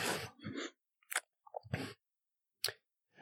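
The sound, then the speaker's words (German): Chewing on a hard, sticky salted-butter caramel candy made in Brittany, with several sharp crunching bites and wet smacking bursts separated by short pauses, loud, no talking. “Nachdem die Hörer jetzt wahrscheinlich mit Hochgenuss, denn was gibt es Schöneres als Essgeräusche, ein Gekaue hier im, im, äh, ertragen haben,”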